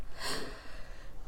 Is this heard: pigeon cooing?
no